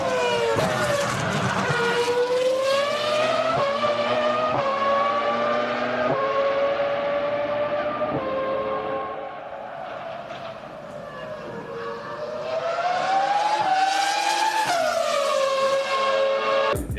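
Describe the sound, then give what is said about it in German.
An old Renault V10 Formula One engine, run in Abu Dhabi, screams at high revs, pitch climbing and dropping through quick gear changes, loud, easing briefly in the middle before roaring back up. No one speaks. “in Abu Dhabi haben sie den Alonso im alten Renault V10 mhm. umgestellt”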